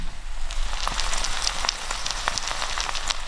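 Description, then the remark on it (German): Steady sizzling with dense crackles and sharp pops scattered throughout, food frying hot in a wok, with a microphone held close to it, with no voices. “der Wok brutzelt auch schon so ein bisschen. Lass mal die Hörer was hören.”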